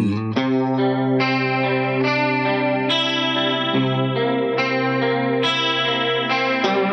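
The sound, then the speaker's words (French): A sustained electric guitar passage played through a Big Spender Spinning Speaker rotary speaker effect pedal, in mono, with rich harmonic chords changing every second or so and a swirling, warbling modulation over a steady, fairly loud tone, no voices. “Attends, on va écouter la Big Spender Spinning Speaker.”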